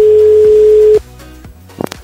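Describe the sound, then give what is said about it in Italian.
A single steady telephone ringback tone sounds for about a second on an outgoing call from the Radio Latte Miele programme to a person not expecting the call, then cuts off, followed by faint line clicks and a brief rustle as the call connects. “Adesso ragazzi andiamo a fare una sorpresa, dobbiamo chiamare una persona che non si aspetta, non si aspetta la nostra telefonata, quindi non lo so se ci risponderà, vediamo, noi stiamo cercando”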